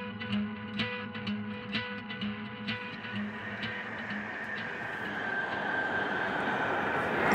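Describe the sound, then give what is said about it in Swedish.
A commuter train at a station platform: a low mechanical hum with steady droning tones gives way to a swelling rush of noise as the train draws closer, with no talking. “Ja, jag står och väntar på, jag står och väntar på pendeltåget och um, medan jag väntar på tåget”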